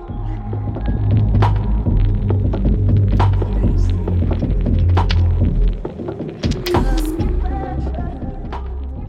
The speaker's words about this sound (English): That Reese bass comes from techno, goes to drum and bass and UK garage, and it has become a mainstay in pop music.